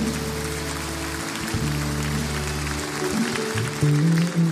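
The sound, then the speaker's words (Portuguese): A church audience applauds the people who gave their lives to Jesus that night, in a dense, steady wash of clapping that carries on for several seconds, with low sustained musical tones underneath and no speech over it. “Você pode aplaudir esses irmãos que nessa noite entregaram a vida a Jesus.”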